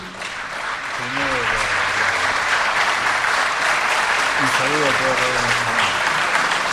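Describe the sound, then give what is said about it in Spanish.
An audience at Radio Nacional Argentina applauds steadily to bid farewell to a visiting electronic music artist, a dense, even clatter of many hands, while a couple of voices speak briefly over it. “a quien despedimos con un fuerte aplauso.”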